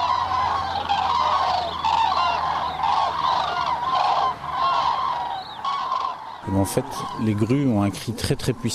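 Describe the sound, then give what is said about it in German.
Loud, overlapping trumpeting calls from a large flock of common (grey) cranes, whose long necks and windpipes amplify their calls, fill the first several seconds, a dense continuous chorus, before a person starts speaking near the end. “Die Kraniche haben einen sehr lauten Ruf, weil sie einen großen Hals haben.”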